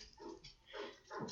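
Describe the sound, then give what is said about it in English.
A dog named Greg barks three times in quick succession, short faint yapping bursts, while neighbors out front bother it, with no one talking. “That's my that's my dog Greg barking.”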